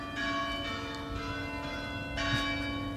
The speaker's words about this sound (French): alors que l'on entend derrière elle le carillon de la cathédrale de Bayeux.